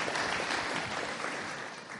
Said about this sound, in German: Herzlich willkommen. Applaus